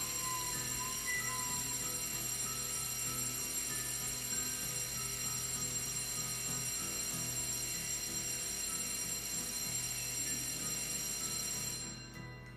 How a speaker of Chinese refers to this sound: 哦，打铃了，我们等一下。